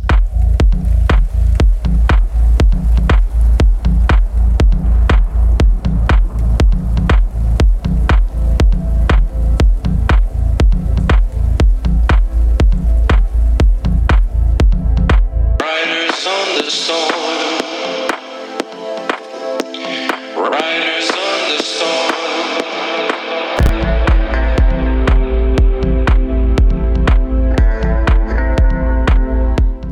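A rock band song plays loud with a steady, driving beat; midway the drums and bass drop out for a brighter, airy passage before the full band crashes back in. The singer was recorded in a separate room, giving a very distinctive reverb.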